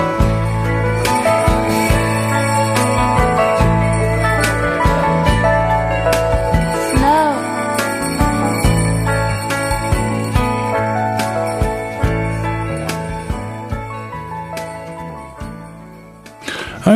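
A country-style Christmas song plays steadily at full volume, a warm band arrangement with bright jingling, bell-like accents running through it and no voices heard.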